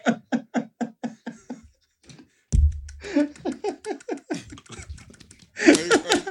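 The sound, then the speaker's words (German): Rapid series of rhythmic thumps by a person on their own chest, each beat carrying a shaken, voiced tone, pausing briefly before a second, busier run of pounding and a loud final burst. “Das kommt bestimmt im Sound jetzt super, dieses Rumgeklopfe auf der eigenen Brust.”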